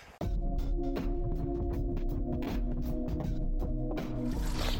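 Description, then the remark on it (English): Spring water and snowmelt at Bigelow Springs flow in a steady wash after a brief quiet start, with a low gurgling rumble, faint humming undertones and occasional drips or splashes. No voices. “This is the sound of Bigelow Springs, snowmelt, and the spring water.”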